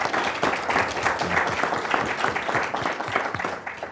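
An audience applauds the panelists at the end of a panel discussion, many hands clapping in a dense, continuous patter that holds at a fairly loud level for the full few seconds, with no one speaking over it.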